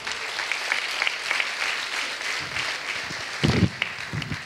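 An audience at a church service claps steadily for the Lord, a dense wash of many hands with a few louder bursts and some voices rising briefly near the end.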